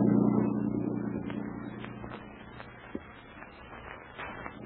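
A motorboat engine roars loudly at first, a steady low drone that fades as the boat pulls away, with a few faint clatters near the end.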